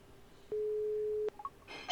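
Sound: telephone ringing tone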